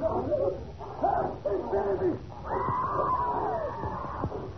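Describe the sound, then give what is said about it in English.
A dog named Carlo snarls and growls in a frantic attack, gripping a man by the throat, while the man screams and gasps loudly, the harsh cries and snarling overlapping continuously for several seconds. “loose the dog.”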